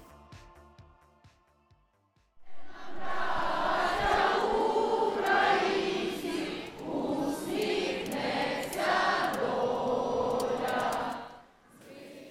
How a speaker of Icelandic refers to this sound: Söngurinn sem þú heyrir hér í bakgrunni á geti hlustandi er frá samstöðu og mótmálafundi sem framfór í Varsjá, höfuborg Pólans, förstu daginn 25. mars.